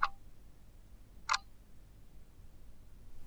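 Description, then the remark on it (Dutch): A clock ticks twice, sharp, the second tick arriving after a long pause before the sound stops entirely and only quiet background hiss remains, like a clock whose hands slowly come to a standstill. “Stel je een klok voor, waarvan de wijzers langzaam tot stilstand komen.”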